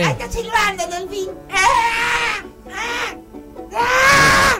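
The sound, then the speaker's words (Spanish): A baby in the audience of a live show cries in several loud, high-pitched wailing bursts, each rising and wavering before breaking off, with short pauses between them and the last cry the strongest. “No es un silbido eso. Ah, hace cosas. ¡Qué alegría! ¡Qué alegría! ¡Qué alegría es poder volver a estar acá junto a ustedes! Sácalo al nene, gracias.”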